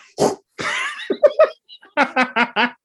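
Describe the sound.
A voice imitates fart noises: a couple of raspy, sputtering blasts, then a run of four short, rhythmic buzzy pulses, fairly loud and with no other sound around them.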